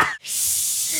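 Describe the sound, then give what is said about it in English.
A voice imitates a rattlesnake's rattle as a steady hiss, starting after a brief breathy sound and holding for nearly a second without a break. “And a rattle doesn't sound like you think it does.”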